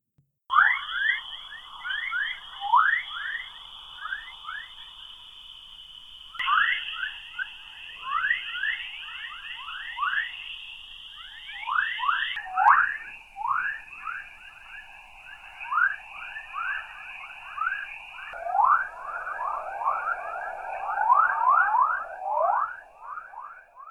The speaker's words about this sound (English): As we keep moving by Earth, we approach a belt of radiation trapped by our magnetic field. This is called the Van Allen belt and it has its own unique chorus. Each chirp and whistle is created by energetic particles flying high above the planet.